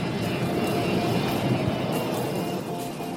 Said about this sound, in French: Pourquoi il décolle pas ce putain d'avion ah, Vous avez remarqué vous aussi